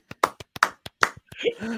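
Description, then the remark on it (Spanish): A quick burst of goal-style applause for a Steelers fan, about eight sharp hand claps in an uneven rhythm, ending as a voice begins talking. “Agiten las toallas por el harpas Aplausito de gol para ese harpas”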